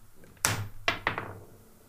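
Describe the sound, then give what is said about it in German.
A flipped 1-euro coin spins and then lands on a table: three sharp metallic impacts in quick succession, each with a short ringing tail that fades out, over a faint low hum and no voices. “Oh, sie dreht, Leute, sie dreht. Sie ist nicht direkt gelandet und sehr gut.”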